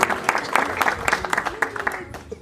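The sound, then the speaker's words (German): An audience claps in a brief burst of applause for a correct answer to a quiz question about Ramadan, a dense, irregular patter of hand claps at moderate loudness, with a faint voice murmuring underneath. “Ein Applaus bitte.”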